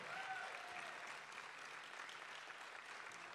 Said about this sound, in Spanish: Prophetic people la gente profética, vamos, denle un aplauso fuerte, si se lo va a dar, se lo da fuerte.